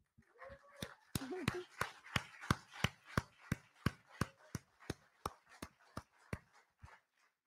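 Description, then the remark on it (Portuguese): Hands clap in a steady, rhythmic beat, roughly three sharp claps per second, loud, with a brief voice sounding near the start; clapping in praise of Jesus Christ during Christian preaching. “Se é para ele, eu também quero aplaudir.”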